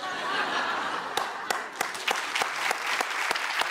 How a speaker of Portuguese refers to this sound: Tô aplaudindo Nelson Mota, hein? que fique bem entendido.